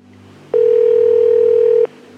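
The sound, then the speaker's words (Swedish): A single ringback tone on a phone call placed by the Nobel Foundation to a home in Pennsylvania: one steady, clear beep lasting a little over a second, heard through the line over a faint low hum, with no one talking. “Det är hennes man som svarar när telefonen ringer och Nobelstiftelsen får ringa upp igen.”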